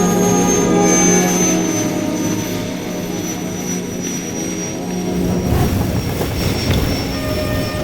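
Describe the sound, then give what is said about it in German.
A helicopter lands, its loud, steady engine whine and rotor roar filling the scene, the noise shifting and swelling rougher partway through as it settles down. “Er landet.”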